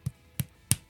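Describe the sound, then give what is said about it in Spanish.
Three sharp hand claps in a quick, even rhythm about a third of a second apart, with a fourth just starting at the end; moderately loud, with no talking. “Sí, ese era uno, pero había otro que es que con este, es que con este micrófono, no, pero era uno que chocaba las manos y suena así, ¿no?”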